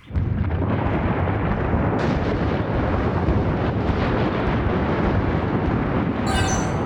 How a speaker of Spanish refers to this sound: ¿Qué fue ese ruido? se asustó. Eso es el sonido de un volcán en erupción. Se cree que es una de las razones por la que los dinosaurios se extinguieron. el volcán está botando mucho polvo.